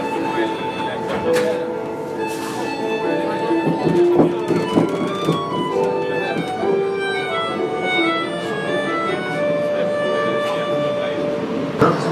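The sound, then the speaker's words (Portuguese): A train with automatic doors pulls into a station with a steady mechanical rumble, squealing brake tones and sharp metallic clanks, while muffled voices murmur in the background throughout. “Chegou o nosso trem. Chegando o bichão aqui.”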